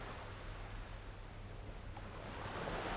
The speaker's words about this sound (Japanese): 今私は海にいますここで海を眺めていると時々ガラス瓶がこちらに流れてきます